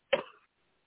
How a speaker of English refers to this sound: take a deep breath and cough from your gut one good time